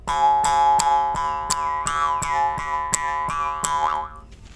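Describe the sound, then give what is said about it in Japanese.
A mouth harp, played with the mouth simply held open, twangs in a steady, even rhythm of about a dozen plucks over a sustained buzzing drone, its tone shifting slightly as it rings clear with no voices. “エハサの感じ口をポカーンと開けた感じででつくかつかないかぐらいねそしてただただ口を開けて弾いたらこんな音色。”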